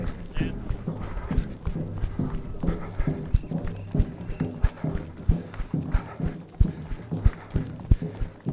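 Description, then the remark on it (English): Steady, rhythmic footfalls of a runner run-walking in a race, pounding along pavement near the nine-mile marker, sharp thuds repeating at an even pace over a low background murmur of spectators' voices. “I'm experimenting here with run walking. And I'm off running again in a few seconds.”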